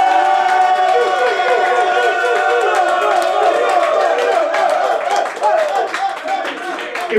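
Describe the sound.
A loud crowd at a producer beat battle roars and cheers with whoops and clapping, making noise to vote for which producer won. A dense sustained wall of voices holds steady for several seconds, briefly dips, then swells again.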